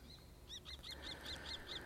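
A common kestrel gives a rapid series of about seven sharp, high 'kee-kee-kee' calls at an even pace over a low background rumble.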